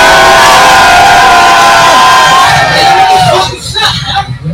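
A loud crowd in New Brunswick, New Jersey cheers and shouts as a performer is introduced, with dense, continuous noise, voices whooping over a steady roar that tapers off slightly toward the end.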